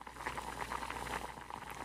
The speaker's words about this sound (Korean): 저는 아버지가 주신 무조림을 냄비에 넣어 한 번 더 끓이고 먼저 맛을 보려고 했는데요.